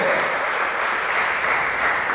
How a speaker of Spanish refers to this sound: Los que han entendido esa palabra pueden darle palmas al Señor.